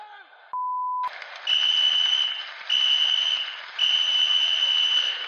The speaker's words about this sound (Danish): og her fløjtes der atter af.